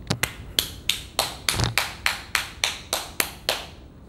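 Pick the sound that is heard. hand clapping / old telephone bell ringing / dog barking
hand clapping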